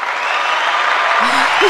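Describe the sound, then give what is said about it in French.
Steady, dense applause from a live audience fills the whole stretch, a loud continuous patter of many hands clapping, with a brief voice surfacing underneath near the end. “Hein on, a, on a un public avec nous.”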